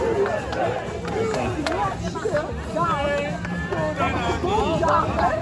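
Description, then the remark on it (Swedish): A loud, dense crowd roars and chatters continuously at a finish line, many overlapping voices shouting and cheering, a steady wall of excited noise with occasional sharper calls rising above the din. “Ja, som ni hörde, ett jävla liv över målet.”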